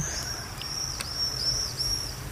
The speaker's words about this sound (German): Oh, die Vögel drehen durch hier. Ja. Ist das, weil wir hier sitzen vielleicht? Wollen die uns was beweisen oder was?